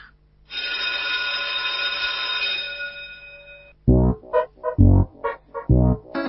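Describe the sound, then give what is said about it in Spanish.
A school bell rung to officially begin a new edition of the Saturday school segment of Tomayaca rings with a bright, sustained metallic clang for about three seconds, then fades into a series of loud, rhythmic bursts, like quick clangs or chimes. “Hechas estas advertencias, no me queda más que pedirle a la operadora y jefa de preceptores de esta tribuna de doctrina, Carla Borria, que haga sonar el timbre para comenzar oficialmente una nueva edición de la escuelita de los sábados de Tomayaca.”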